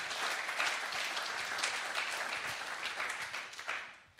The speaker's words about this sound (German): Großer Applaus